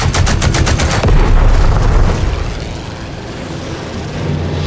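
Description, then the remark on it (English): Twin .50 caliber machine guns fire at an enemy fighter plane in a rapid, loud burst of heavy thudding shots, followed by a deep rumbling roar that slowly fades. No one speaks. “Charlie squeezed the trigger and the twin 50 cals opened up.”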